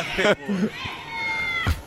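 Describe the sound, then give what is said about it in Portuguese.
Agitated cats meowing in a video being played, a sharp burst followed by a long, wavering, drawn-out yowl that rises and dips before a final short cry, moderately loud. “Eu quero os gatinhos nervosos. Eles correndo, balé pra cá.”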